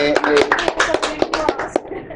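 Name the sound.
applause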